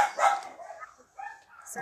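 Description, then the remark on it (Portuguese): A dog barks a few times in short, sharp bursts with brief pauses between them, moderately loud, with no talking over it. “Para de latir no meio da gravação.”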